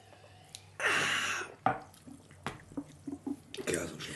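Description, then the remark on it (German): A coffee machine running in the background, brewing: a burst of steamy hissing and gurgling, followed by scattered light drips and small clicks, fairly quiet throughout. “Da läuft ja. die ganze Zeit so eine Kaffeemaschine im Hintergrund durch.”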